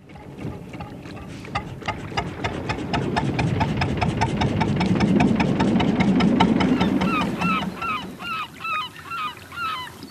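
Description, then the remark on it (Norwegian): A fishing boat engine chugs in a steady, low rhythm as the boat passes, swelling louder mid-clip and then fading away, while geese honk repeatedly over it, their calls growing clearer toward the end. “Du, se den fine fiskeskøyta som tøffer forbi her nå.”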